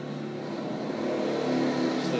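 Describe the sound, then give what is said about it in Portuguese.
A motorcycle engine drones past, a steady buzzing roar that swells slightly louder toward the end, with no one talking over it. “esperar a moto passar.”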